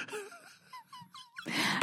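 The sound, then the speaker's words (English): Howard Dean's "Dean scream" at a political rally, picked up by one mic: a man lets out a weird, drawn-out yell that wavers and slides in pitch, moaning up and down before breaking into a rough, noisy burst at the end. “He he yelled weird one time that one mic picked up.”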